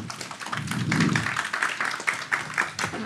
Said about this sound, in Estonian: võib teha aplausiga julgustuseks.